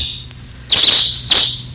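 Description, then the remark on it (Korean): Two bright, high-pitched sparrow chirps ring out roughly half a second apart, each a quick loud burst over a quiet background hum. “이 참새 소리가 일부에 나가는 노래 중간에 나올 거예요.”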